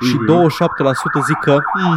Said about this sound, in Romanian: ce sirenă dubioasă. Da. Ce a fost aia?